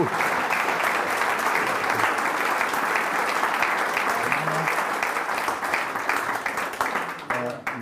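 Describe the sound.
Sustained applause from an audience, a dense, even wash of many hands clapping at steady loudness, with a few faint voices mixed in before it thins slightly toward the end.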